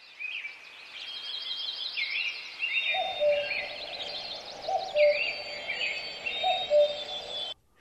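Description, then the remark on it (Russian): Birds sing in a forest: several songbirds trill and warble at once, overlapping high chirps and repeated calls, with a soft background hush joining partway through. No one speaks. “Но проще и дешевле для успокоения может просто послушать звуки, я не знаю, леса и птиц”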